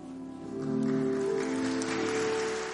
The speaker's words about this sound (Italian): L'applauso che sentite saluta il Papa che sta lasciando altare della cattedra all'interno della Basilica Vaticana.